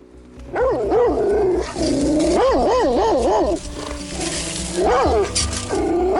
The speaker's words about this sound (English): The mangy dogs moved in closer, encircling me and the car.